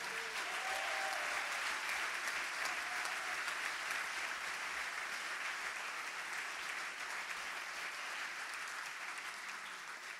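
Sustained applause from a theatre audience, a dense steady wash of many hands clapping that stays loud throughout and eases slightly toward the end, with faint scattered voices underneath.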